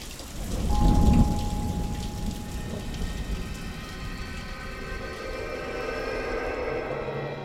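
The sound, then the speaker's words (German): Steady heavy rain patters down on cobblestones in the streets through the night, a dense continuous hiss of drops with a low rumble swelling near the start, no voices present. “Schwere Tropfen, die bis in den Morgen auf das Kopfsteinpflaster prasselten.”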